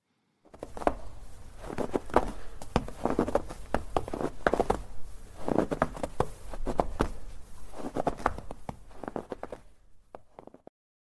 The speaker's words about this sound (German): Das sind Schritte. Das ist eine Patrouille. Das ist der Gang durch einen verschneiten Schützengraben an der Kontaktlinie in der Ostukraine.